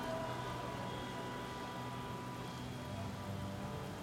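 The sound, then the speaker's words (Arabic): Steady rain pours down in a continuous, even hiss on a busy street at rush hour, drops pattering densely on hard surfaces with a low hum of traffic underneath and no voices. “الوقت كان وقت الذروة وسواقين العربيات ما كانوش مستعدين يسوقوا أبطأ عشان شوية مية نازلين من السماء”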